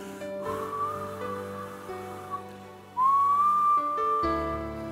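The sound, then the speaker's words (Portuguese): Someone whistles long, airy tones to imitate strong wind seeping through a small window gap in an apartment: a faint drawn-out whistle, then a louder rising one that holds steady, over a low constant hum. “Tem dias, tem dias que está um vento tão forte no meu apartamento, aí eu deixo uma brechinha só para ouvir um assovio.”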